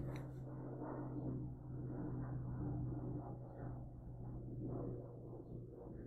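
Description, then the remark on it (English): A low-flying airplane passes right over a house, producing a loud, continuous rumbling roar with a steady droning hum that swells slightly and holds throughout, with no one speaking. “hopefully there won't be any planes up in the air as I record this. Wait, can you listen to this shit real quick?”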